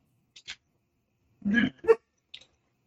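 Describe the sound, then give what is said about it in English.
A dog barking to be let out gives two muffled barks in quick succession, with a few faint short yelps or clicks before and after and quiet between. “My dog is barking to get out, but I'm not going to worry.”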